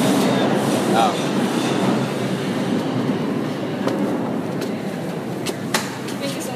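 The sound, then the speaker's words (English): A subway train rumbles along the tracks in a steady, loud roar, with occasional sharp clicks and clanks from the wheels and indistinct voices faintly in the background. “This is Downtown Express 4, train to New Lots Avenue, four minutes away.”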